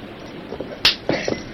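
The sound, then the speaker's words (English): A whip cracks once with a sharp, loud snap to drive draft horses pulling at a bridge, followed moments later by a second, softer crack, with no voices in between. “Use the whip.”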